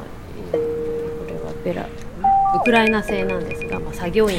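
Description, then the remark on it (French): A radiation dosimeter from Ukraine, measuring radiation 5 cm above the ground, sounds its alarm as the level reaches red: a steady electronic tone, then a brief higher-pitched beep, followed by voices talking over continued alarm tones. “Quand on arrive à ce niveau, il y a une alarme qui retentit sur ce dosimètre.”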